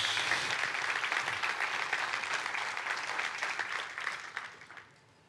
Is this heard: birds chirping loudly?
no